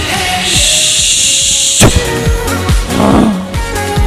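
Rangel's car exhaust roars loudly, its deep rumble pulsing in repeated revving surges, with a sharp crack like a backfire partway through and a harsh hiss riding over it. No one speaks.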